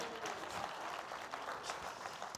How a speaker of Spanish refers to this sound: Si, le dan un aplauso, ¿te motivan más? ¿Sí? Denle un aplauso a la pastora.